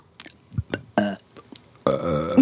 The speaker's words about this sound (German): Ich kann das gut, ich könnte jetzt theoretisch auf, ad hoc könnte ich jetzt einfach rülpsen.